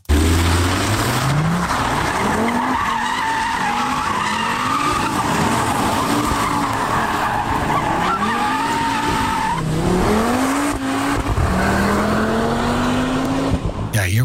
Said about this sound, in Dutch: Nieuwe auto's met een vijfcilinder. Ja, ze worden toch wat eh, schaarser. Maar gelukkig heeft Audi de nieuwe RS3 gewoon weer met een vijfpitter uitgerust. Levert weer een eh, hoop lol op.